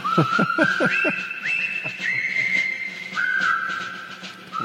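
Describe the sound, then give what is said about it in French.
The cheerful march tune from the film The Bridge on the River Kwai is whistled in clear, sustained notes that step up and down in pitch. A few quick, punchy beats back it at the start. No one speaks. “c'est une petite musique joyeuse, mais c'est quand même un drame”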